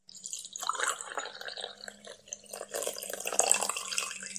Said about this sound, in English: Hey, I just poured you a cup of coffee.